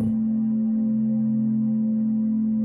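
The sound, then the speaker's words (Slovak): A steady, low-pitched tone hums continuously at an even volume, with faint softer droning layers beneath it. No voices are heard. “V ľavom uchu budeš počúvať tón po frekvencii 234 Hz.”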